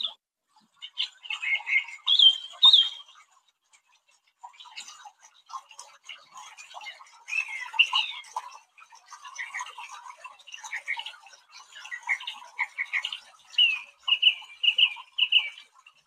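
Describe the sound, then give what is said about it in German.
A songbird mimicking many different sounds sings a long, varied stream of chirps, clicks, whistles and rapid ticking phrases, shifting between many different sound types with short pauses, clear with no talking. “Also es ist ein Vogel und der macht ganz viele unterschiedliche Geräusche nach.”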